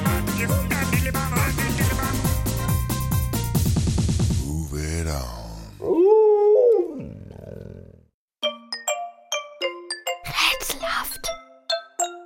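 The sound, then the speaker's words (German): A dog howls with a wavering, drawn-out pitch for a couple of seconds, surrounded by bright musical jingle sounds and ringing chime-like tones that follow. “Unser Schiedsrichter und flauschiger Wuffelschnuffel hier ist schuld.”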